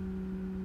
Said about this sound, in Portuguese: Agora tá passando lixeiro.